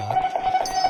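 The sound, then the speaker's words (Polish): A bright, tinny coin-jingle game effect rings steadily for about a second, with quick shimmering pulses on a sustained metallic tone. It plays alone at moderate loudness. “To dzwonienie to jest oczywiście, no to są monety.”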